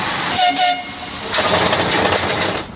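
A coal-fired steam locomotive pulls away as the driver opens the regulator and sets the reverser fully: a brief whistle tone over hissing steam gives way to loud, rhythmic chuffing bursts that quicken slightly as it gets moving, with no voices.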